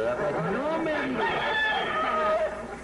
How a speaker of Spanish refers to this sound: Ha ganado 325 peleas. Eh, y todo ha salido airoso. Óyeme, ¿325 peleas? Sí, hombre. ¿De verdad? Hombre, este gallo es descendiente directo del gallo que le cantó a San Pedro.